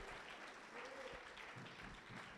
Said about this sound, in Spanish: ¿Le puede dar un aplauso a Dios?